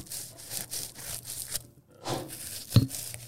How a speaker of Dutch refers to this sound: We snijden het wel met een broodmes aan.